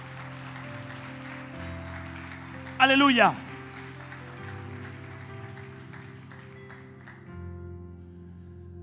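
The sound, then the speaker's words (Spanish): A church audience in Caracas applauds for Jesus steadily for several seconds during a sermon, under a sustained musical backdrop, with one voice shouting out loudly partway through before the clapping fades away. “Dele un aplauso a Jesús, que no es parte de la prédica.”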